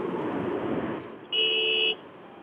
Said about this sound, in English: Are you in a car right now? Yeah, I am. Are you heading home? No, I'm going to pick up my daughter from school.